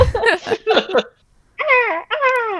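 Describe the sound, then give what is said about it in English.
A person imitates a hawk's call with two drawn-out, screechy cries in quick succession, loud, following a few seconds of choppy laughing vocal sounds. “They were both great hawk noises.”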